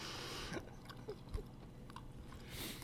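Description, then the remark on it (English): Crisp chewing and crunching of toast, a series of irregular crunches and soft mouth sounds over a few seconds, with no one talking. “I'm just trying oh to finish God. my toast.”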